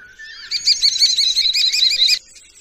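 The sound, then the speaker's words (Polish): A common starling calls, a loud run of rapid, buzzy, warbling notes lasting about a second and a half before breaking off, with no talking. “No a takim zwycięskim gatunkiem jest szpak.”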